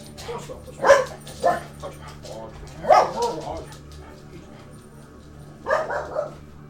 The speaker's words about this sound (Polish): Przepraszam. Słyszysz jak? Gerard właśnie szczeka. Już, nie ma.